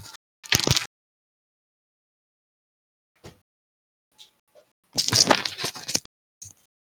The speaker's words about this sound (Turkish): Ben bir şu camı kapatıp hemen geliyorum 2 saniye.